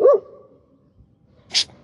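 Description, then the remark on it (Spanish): A dog gives one sharp bark, then after a quiet pause of over a second comes a brief, harsher rasping burst. No one speaks. “Dile al perro, güey. No es carro.”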